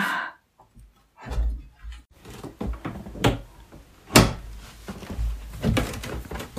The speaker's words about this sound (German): Geht die Tür auf? Ja, geht auf.